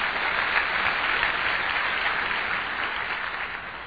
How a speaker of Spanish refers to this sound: Démosle un buen aplauso al Señor.